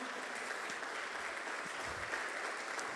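An audience applauds loudly, a dense, steady wash of many hands clapping that holds evenly for the whole stretch, with no voices standing out.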